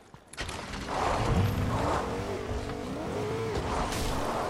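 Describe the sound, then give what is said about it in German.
A video game car engine revs up and drives off, a steady mechanical drone with rising and falling pitch, continuous, with no one speaking. “Mein Auto! Ach hier.”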